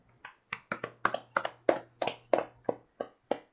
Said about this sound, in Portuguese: Essas palmas que já são do pódio, né?